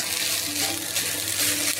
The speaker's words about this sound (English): And now we'll add the water. Some more water.